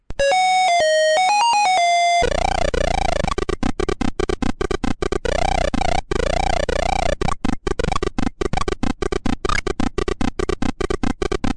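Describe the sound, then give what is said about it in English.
Bright electronic beeps and warbling tones open, then a dense, loud stretch of rapid bleeps and buzzy swooping sounds, like retro video game sound effects, with no talking. “All they had to do was correctly identify from what game this sound clip came from.”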